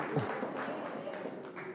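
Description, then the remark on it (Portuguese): A church audience applauds the Lord during a sermon, a dense, steady wash of many hands clapping at once that holds at an even, moderate level, with a few sharper claps standing out. “Pode aplaudir o Senhor”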